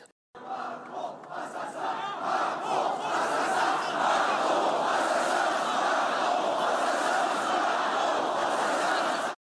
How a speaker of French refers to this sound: Macron assassin scandé par euh, une partie euh, de la foule alors que euh, Éric Zemmour faisait une liste des victimes de l'insécurité et des violences en France.